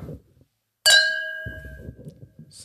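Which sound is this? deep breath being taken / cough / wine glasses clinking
wine glasses clinking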